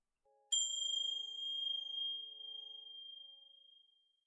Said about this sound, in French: Je vais te faire écouter une musique qui favorise la détente. Et je veux que tu écoutes bien cette musique-là pour compter le nombre de fois que tu vas entendre cette cloche-ci.